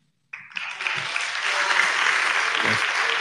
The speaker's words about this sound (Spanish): Mi admiración y mi respeto nos prestigian y eso merece mi aplauso, mi aplauso y mi reconocimiento.